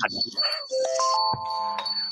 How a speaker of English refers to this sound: and it hit the doorbell.